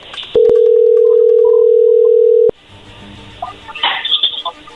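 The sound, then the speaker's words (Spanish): A steady, loud telephone dial tone from a phone call being dialed hums at one pitch for about two seconds, then cuts off abruptly, followed by faint rustling and brief chirpy noises. “A ver, ahí se está marcando, no hagas ruido, por favor.”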